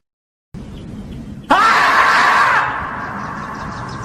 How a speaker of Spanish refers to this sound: Así me los imaginé gritando a los pobres 49ers si pierden otra vez un Super Bowl.